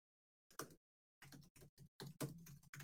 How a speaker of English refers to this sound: Make sure you can hear me pounding on the keys so you know I'm not just sitting here farting around.